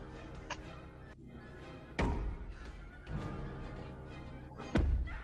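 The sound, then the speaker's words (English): A man bangs a metal stool hard against an unbreakable window three times at uneven intervals, trying to break it, each blow a heavy, dull thud over a steady low rumble, with no voices. “I like how he can't break it with a metal stool, so he tries to throw his shoulder into it.”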